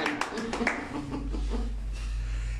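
Brief scattered applause from a small group, a handful of sharp claps in the first moment that quickly fade, leaving a low steady hum.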